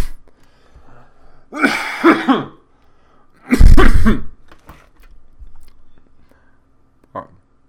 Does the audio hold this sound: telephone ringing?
no